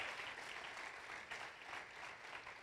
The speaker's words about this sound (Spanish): Aplaudan al Señor de la Gloria.